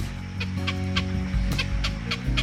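bird, grey heron call

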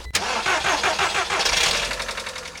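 vehicle, car engine starting

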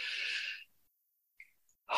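human body sound, deep inhalation

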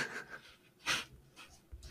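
animal, dog panting

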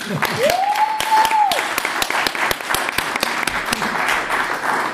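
crowd, applause

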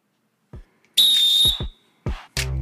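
signal or alarm, referee's final whistle

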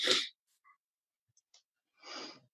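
human body sound, coughing fit

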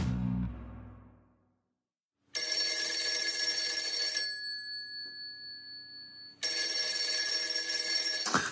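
signal or alarm, telephone ringing tone

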